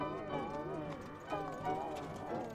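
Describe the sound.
The hooves of a horse drawing a carriage bus clip-clop at a steady, unhurried pace, moderately loud, with a voice talking over them throughout.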